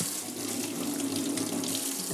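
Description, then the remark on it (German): Water runs steadily from a tap as fingers are washed, a continuous hissing splash that holds level throughout, with a faint low hum underneath and no voices. “Wir haben jetzt die Finger ab, abgewaschen nochmal.”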